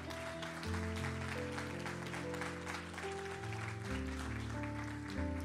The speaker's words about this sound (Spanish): Puede dar un aplauso fuerte al Señor.